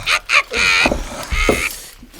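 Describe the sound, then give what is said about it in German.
A few muffled, dull blows of a hammer smashing a small glass-encased artwork wrapped in a tea towel to free the models inside, short thumps spread across a couple of seconds, with a voice exclaiming between the hits. “Ich wickle es in ein Geschirrtuch. Mal her! Und dann nehme ich einen Hammer und jetzt!”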